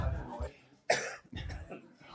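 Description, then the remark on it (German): A single sharp cough bursts out, with a quieter rough follow-up, between stretches of low, muffled voices talking before and after. “hustet aber wirklich oh. viel heute.”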